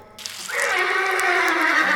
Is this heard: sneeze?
no